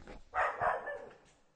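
A dog named George barks twice in quick succession, sharp, followed by a brief trailing yip as the sound fades, with no one talking over it.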